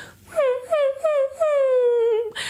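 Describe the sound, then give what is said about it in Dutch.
As a vocal exercise for finding a cry in the voice, a voice imitates a crying puppy with four high, whiny whimpers, each sliding slightly downward, the last one drawn out longer, followed by a short breath. “Dus je moet echt gaan denken aan een puppy die weent.”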